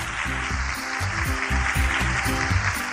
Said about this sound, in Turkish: Doğru cevap mı sevgili çocuklar? Haydi bakalım alkışlayalım.